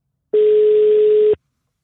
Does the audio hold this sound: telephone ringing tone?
yes